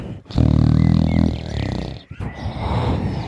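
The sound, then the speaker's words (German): A giant's loud, deep, rumbling, exaggerated snore comes in two long drawn-out breaths: a heavy growling inhale followed by a rougher, rattling exhale, with no speech. “Und dann fängt er an zu schnarchen.”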